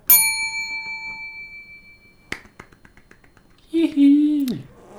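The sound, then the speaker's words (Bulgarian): A small bell is struck once and rings out brightly, its clear metallic tone fading slowly over a couple of seconds. A few faint clicks follow, then a brief spoken exclamation. “Мет ми капе на сърцето, всеки път го казвам и ще продължавам да го казвам това звънче, като го чуя така направо.”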